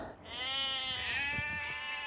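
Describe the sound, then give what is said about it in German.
A single sheep bleats in one long, wavering call lasting about two seconds, fairly loud, with no voices around it. “Ja, Schaf Nummer eins ist fertig.”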